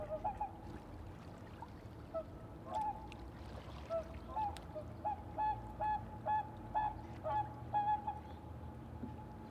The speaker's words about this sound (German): Quarren, Quorren, Hupen, Pladdern, Flattern. Manchmal springt ein Fisch, taucht klatschend wieder ab, oder ein Schwanenpaar schlägt wild mit seinen Flügeln und schwirrt dann knapp über dem Wasser hinaus in die Nacht.